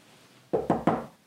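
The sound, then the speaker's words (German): Three quick knocks on wood in a steady rhythm, fairly loud, with nothing else around them. “Schön auf Holz klopfen, gell?”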